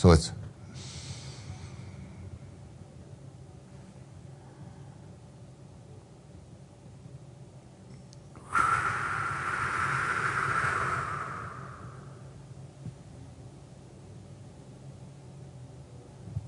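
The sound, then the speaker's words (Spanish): A faint, slow breath in, a long quiet pause holding the breath, then a louder, breathy exhale lasting a few seconds before trailing off into quiet: box breathing with counts of four. “Y eso es inhalación por un cuento de cuatro, ah, aguanta el aire por un... por cuatro. Por cuatro, exhala por cuatro completamente y espera por cuatro.”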